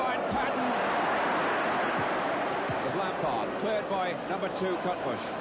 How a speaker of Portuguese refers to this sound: o barulho das pancadas na bola no áudio, velho.